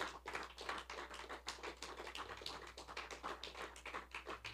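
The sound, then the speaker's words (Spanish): An audience claps steadily in praise of the Lord, many hands producing a dense, continuous patter of sharp slaps with a brisk, even rhythm and no voices on top. “Y dale un fuerte aplauso a Él porque Él se lo merece.”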